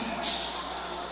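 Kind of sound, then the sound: animal, snake hissing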